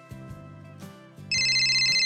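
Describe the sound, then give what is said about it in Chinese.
A few soft, low tonal notes give way to a loud, high-pitched electronic telephone ring in a Peppa Pig story, a steady trilling tone that continues to the end without any talking, while Peppa and George sit on the sofa watching TV. “电话响了。”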